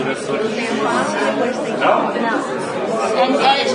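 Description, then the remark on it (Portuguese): A busy web journalism laboratory on a day of editorial meetings and final production of a newspaper and magazine, full of overlapping voices, several people talking at once in a steady, dense murmur of chatter with no pauses, moderately loud. “Quer escutar um pouco de como o laboratório fica em dias de reunião de pauta e finalização dos produtos?”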